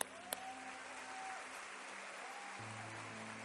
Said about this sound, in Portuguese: Vamos mais uma vez aplaudir ao Senhor.